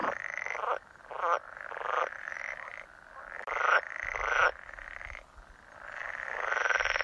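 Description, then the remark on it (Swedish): A pool frog calls in spring in repeated, rapid trilling bursts, each lasting about a second with brief gaps between, loud, with no talking over it. “Så har de sådana här strupsäckar också som, som de kan blåsa upp när de spelar på våren.”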